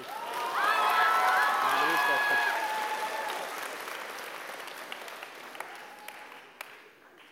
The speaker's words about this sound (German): Brauchst du noch mal einen Applaus?